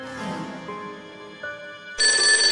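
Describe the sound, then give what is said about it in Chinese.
A telephone rings only twice. Its electronic tone sounds in steady, pitched bursts, then breaks into a louder, brighter ring near the end. No voices are present. “我们唰的看向电话的位置，只响了两声。”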